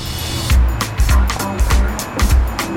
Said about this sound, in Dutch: Het, water gaat nu rustig, maar zoals vanmiddag is het net alsof je bij de zee bent. Zo kolkt dat hier onderdoor. ja. dat hoor je.